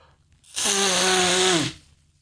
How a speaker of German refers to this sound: Ich muss mir meine Nase putzen, ihr Lieben, sorry.